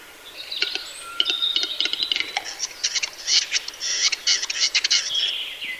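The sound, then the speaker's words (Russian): A western capercaillie's mating display, played back by pressing a button at a playground: a run of sharp, dry clicks that grow quicker and denser, mixed with high chirps and twitters from other birds in an open outdoor setting. “Это называется «Глухарь такует».”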